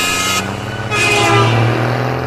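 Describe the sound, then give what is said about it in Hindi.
A loud, sustained truck horn blares close by from a truck passing alongside a car on the road, a steady low drone swelling slightly as the truck passes, with road noise underneath and no talking. “एक जोरदार आवाज आई जो उनके बगल से गुजरती हुई ट्रक के हॉर्न की थी”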